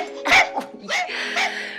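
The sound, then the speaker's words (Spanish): A dog barks and yips several times in quick succession, four short bursts, with no one talking, as a girl plays with her dogs in a garden. “La melancólica muchacha juega con sus hermosos perros.”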